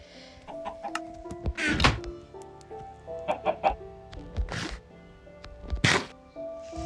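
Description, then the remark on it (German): Four chickens in a video game cluck in short, irregular bursts, mixed with soft thunks and tonal game-like sound effects, no talking, at a moderate level. “Jetzt haben wir schon mal vier Hühner.”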